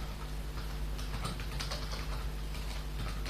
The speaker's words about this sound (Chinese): 啊，学啊，打字打错了啊！